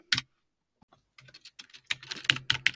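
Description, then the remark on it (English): Mechanical keyboard keys clack sharply: one loud keystroke, a short pause, then a quickening flurry of crisp, uneven typing that grows louder toward the end, with no voices; the keys belong to a simple writing device with just a screen and mechanical keys. “For those of you interested, mechanical keys other ones that sound like a typewriter or an old-fashioned word processor from yesteryear.”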